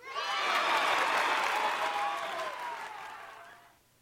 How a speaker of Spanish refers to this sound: Todos aplaudieron cuando terminó de leerlo.